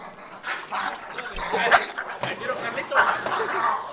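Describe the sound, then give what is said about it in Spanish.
Dogs bark and snarl in a frantic scuffle, the noise surging in rapid overlapping bursts while people shout over the commotion, urging each other to separate the dogs. “¡Sepáralo, sepáralo, sepáralo! ¡Le echo agua!”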